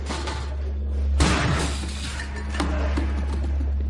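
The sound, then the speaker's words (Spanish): In an empty hospital waiting room, a man kicks over a coffee machine, which crashes to the floor with a loud, shattering clatter, followed by a smaller knock or two, all over a steady low mechanical hum. “Patea y tira una máquina de café.”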